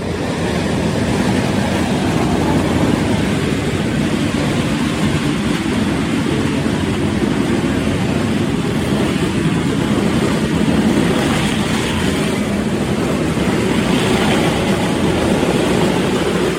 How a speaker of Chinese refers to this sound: 现在就是妈祖就在我们的前面，所以你会听到很大声的鞭炮声。你听到那个都是在空中的烟火了吗？你光是用天的音，用听的，应该就会觉得非常的壮观了吧？